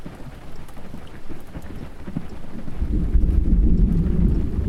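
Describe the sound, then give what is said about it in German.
Light rain patters steadily with a soft crackle of drops, joined after a few seconds by a deep, swelling rumble of thunder that makes the storm grow louder and heavier. “Das Gewitter, der leichte Regen, irgendetwas. Da ist mehr. Ungemütlich.”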